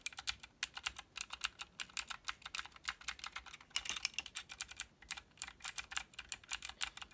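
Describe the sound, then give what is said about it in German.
Rapid, steady typing on a computer keyboard, a dense stream of crisp clicky keystrokes with a brief burst of heavier presses midway, no voices. “Aber das, die Tastatur möchte ich kurz mal zeigen.”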